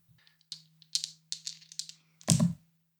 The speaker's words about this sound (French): Donc, eh bien, tu vas jeter tes dés pour voir si ton sort fonctionne.